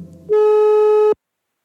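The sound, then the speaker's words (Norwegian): A single steady electronic telephone ringing tone for an outgoing call to an assault victims' centre in Oslo, Norway, one buzzy beep lasting under a second, clear and fairly loud, then silence. “Derfor tok jeg en telefon til overgrepsmottaket i Oslo.”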